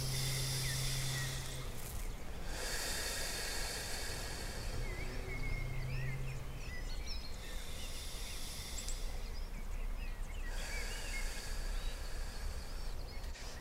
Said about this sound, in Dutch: Ja, dit is mijn ademhaling.